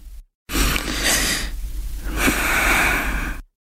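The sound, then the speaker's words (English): An airy hiss of breath drawn in through the mouth with the tongue rolled into a tube, followed after a short pause by a longer, softer breath out through the nose, in a cooling breathing exercise, with no talking. “Inhale through the mouth, sucking through the straw, then exhale through the nose.”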